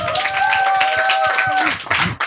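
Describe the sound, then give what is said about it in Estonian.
An audience at an education event applauds to welcome a speaker from the GTL Labor initiative, a dense, steady wash of many hands clapping at once, fairly loud, with a few sustained tonal sounds and faint voices mixed in. “teeme talle ka aplausi.”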